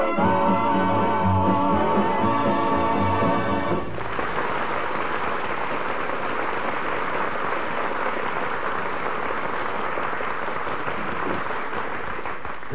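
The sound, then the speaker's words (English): Heavy rain pours down in a steady, dense hiss that continues unbroken after a few seconds of music fade out, loud with no voices; the rain has been falling on a town for three hours and is growing harder. “Three hours I've been standing here, and it's raining harder than ever.”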